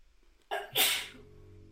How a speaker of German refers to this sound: Gesundheit. Gesundheit.